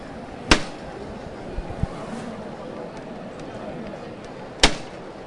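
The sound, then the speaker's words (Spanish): Two sharp, ringing strikes of a llamador knocker on the stopped Holy Week float (paso) of the Cristo de la Aspiración, about four seconds apart, cutting loudly through a steady murmur of crowd noise. “Em, yo he contado así, a grosso modo, unas 30 parejas aproximadamente de hermanos eh, de luz cuando se escucha de nuevo el llamador.”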